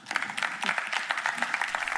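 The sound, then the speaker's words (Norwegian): An audience at the Sysla Live event in Bergen applauds speakers from Statoil and Cognite, a dense, steady patter of many hands clapping, sustained and fairly loud throughout, with no voices standing out. “Gi en stor applaus til Åshild Hanne Larsen fra Statoil og Jon Markus Lervik fra Cognite.”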